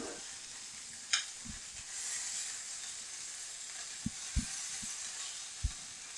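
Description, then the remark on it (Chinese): Squid sizzles steadily in a frying pan as it browns to a golden colour, a broad hissing crackle with a few sharp clicks and low taps of a utensil scattered through, with no one talking. “好，煎焦黄上色了，这个香味出来了，那也也大概快熟了，有没有？”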